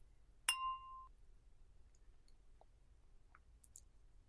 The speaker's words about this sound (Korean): 그럼 와인도 짠, 짠, 짠, 짠 해볼까? 짠.